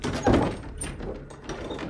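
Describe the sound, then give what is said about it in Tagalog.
A living room door opens with a short, solid thunk near the start, followed by quieter handling and movement sounds, with no one speaking. “Ngunit dahil lalo akong kinabahan sa sinabi ni Kuya, mabilis akong lumabas ng kwarto at binuksan ang pinto sa sala.”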